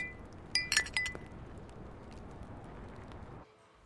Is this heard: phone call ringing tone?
no